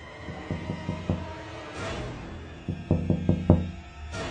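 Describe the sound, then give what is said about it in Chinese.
Someone knocks on a car window late at night on a street: two bursts of quick, hollow raps, a softer group of four followed by a louder run of five, with no voices. “可就在这时，老秦却听见了咚咚咚的，似乎是有人在敲车窗的声音。”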